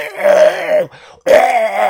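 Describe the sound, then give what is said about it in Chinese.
Two loud, drawn-out, beast-like roars separated by a short pause, each a deep, rough, groaning bellow with a strained, growling tone. “或许是感觉到了疼，这个盔甲人愤怒了，他不断的双手拍打着胸膛，口中发出阵阵巨大的吼叫声，”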